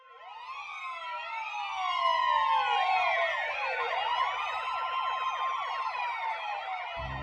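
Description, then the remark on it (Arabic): A police car siren wails loudly and continuously at night, its rising and falling tones overlapping as if several sirens or echoes sound at once, with a faint low rumble beneath and no talking. “استيقظت ليلا على صوت صفارة إنذار عربة الشرطة”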